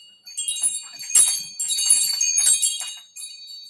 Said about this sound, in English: I also have wind chimes.